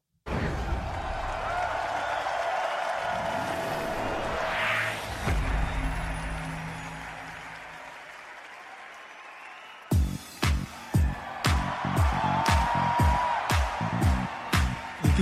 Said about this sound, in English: hear the crowd. Yeah, and you can see why Eurovision is as exciting as it is.